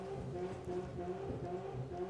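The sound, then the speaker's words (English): Car engines revving across the street, a steady rumbling drone with slight rises in pitch, low in volume, with no voices. “Even the uh, cars across the street got excited about that one.”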